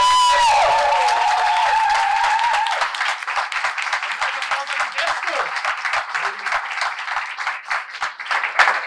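An evening event audience breaks into loud, dense applause for the night's winner and others present, with many hands clapping in a steady crackling wash that holds for several seconds. A brief high vocal cheer rises over it at the start.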